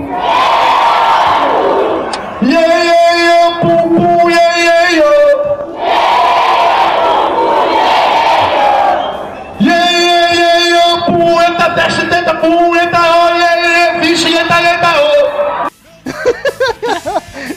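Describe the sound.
A large concert crowd at a show roars and chants in unison, repeating back phrases such as "E eu!" called out by the performer, trading back and forth with loud, sustained, tuneful shouted lines in a call-and-response pattern, ending with a brief burst of scattered voices.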